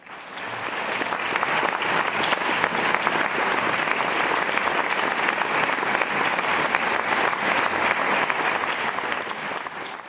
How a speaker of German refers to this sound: Allgemeine Erleichterung, allgemeiner Jubel.